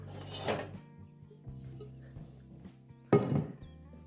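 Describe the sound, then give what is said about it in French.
Metal pots clatter and clank as a large saucepan is pulled out for cooking sweet potatoes, with one loud burst of rattling near the start and another near the end, quieter shuffling in between. “Je prends une grande casserole.”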